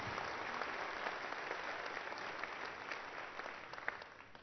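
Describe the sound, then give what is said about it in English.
An audience applauds steadily, dense clapping at a moderate, even level for several seconds, with no one speaking over it, showing appreciation to two people going on mission. “One more time, let's show our appreciation to”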